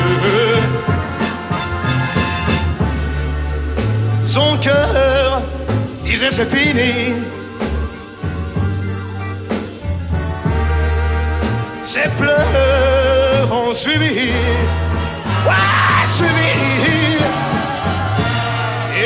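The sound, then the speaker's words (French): A French song performed live at the Olympia farewell concert, with a male voice singing over a full band, steady bass and strummed accompaniment, loud and continuous throughout, with the warm feel of a live performance. “Alors, c'est l'Olympia, effectivement, des adieux, puisqu'il va partir à l'armée après.”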